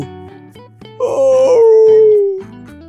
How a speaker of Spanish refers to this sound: Ya estaba medio dormido cuando escuchó un gemido.